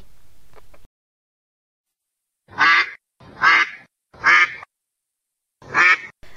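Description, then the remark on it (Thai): A duck quacks four times in a steady, evenly spaced series, each call loud and nasal, following a brief low rumble and a stretch of silence. “หนึ่งเป็นเป็ดน้อย สีขาวขุ่นขมุกขมัวมอมแมมและดูไม่น่ารัก”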